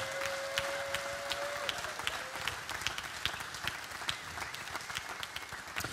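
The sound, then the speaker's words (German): An audience applauds a team steadily for several seconds, a dense patter of many hands clapping at once, with a brief tone sounding faintly in the background near the start. “Können wir diesem Team, unserer Homegrew, mal einen riesen Applaus geben?”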